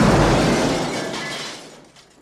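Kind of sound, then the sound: impact, window glass shattering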